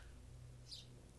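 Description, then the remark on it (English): A single faint bird chirp rises briefly over a steady low background hum in a backyard with many bird feeders, with no one speaking. “I don't know if you guys can hear birds in the background, but just I'm acknowledging that those are birds and they're chirping.”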